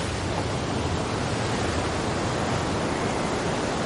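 Large sea waves wash against a beach shore in a loud, continuous roar of surf, with no distinct breaks between them and no voices.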